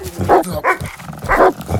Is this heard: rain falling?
no